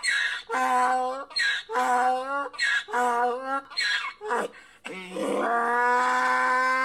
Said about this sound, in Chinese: 呵呵，估计同学们很少听过驴叫。 驴的叫声非常有特色的。来，我们一起听一听。